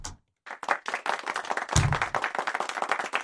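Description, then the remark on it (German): A short burst of audience applause, dense overlapping hand claps from a crowd, starting abruptly after a brief silence and continuing steadily. “Dem gilt der Applaus.”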